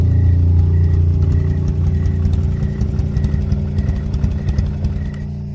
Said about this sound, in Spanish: Recuerdo bien que no tenía mucho de haber dejado el río atrás cuando mi motocicleta se apagó sin motivo aparente.